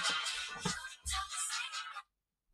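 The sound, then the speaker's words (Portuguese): A mobile phone ringtone plays a snippet of a pop song, dense and bright with punchy bass beats, lasting about two seconds before cutting off abruptly into silence. “Que foi o meu toque, o meu toque telemóvel.”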